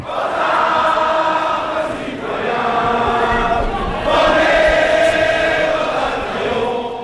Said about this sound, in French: Et oui, à ce moment-là, Elisabeth Borne acte à l'Elysée le déclenchement de l'article 49.3. Colère des députés à gauche, à l'extrême droite, huée et marseillaise.